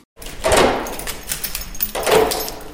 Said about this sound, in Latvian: un seifa durvis jau tiek vērtas vaļā.